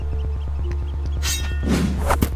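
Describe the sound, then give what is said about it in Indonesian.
A steady low mechanical hum pulses underneath, then a burst of harsh noise erupts, followed by a rumbling blast and a sharp crack near the end, like an explosion or gunshot. “Pada debur ombak yang kesembilan, terdengar ledakan itu”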